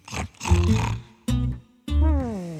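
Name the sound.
tiger roaring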